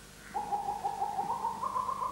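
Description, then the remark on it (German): A recorded bird call plays from a small device speaker connected to a computer, a steady, fairly loud warbling tone with a quick repeating pulse that runs on without pause. No one speaks. “Well, I put in some uh, frogs and some birds.”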